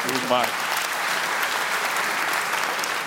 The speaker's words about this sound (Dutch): goed, Ja, applaus, applaus.